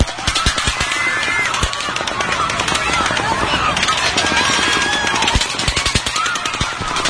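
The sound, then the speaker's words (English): Rapid, overlapping bursts of gunfire from two guns firing at once crackle almost nonstop for several seconds in a video of the shooting at the Mandalay Bay Hotel, with indistinct voices and a busy background underneath. “I see the gunfire should be right in here.”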